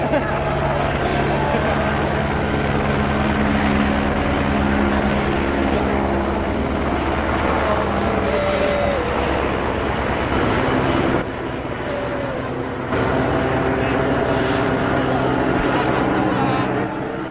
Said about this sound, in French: Et voilà l'hélicoptère de la gendarmerie qui fait son petit tour euh, ce dimanche 13 novembre au-dessus du, terrain de l'ancienne gare de Luméville, là où a lieu le, camp VMC de l'été 2015.